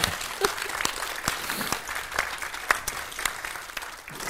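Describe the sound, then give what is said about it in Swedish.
Audience applause for a talk-show guest, a dense steady patter of many hands clapping at moderate volume for several seconds, with no voices rising above it. “En applåd.”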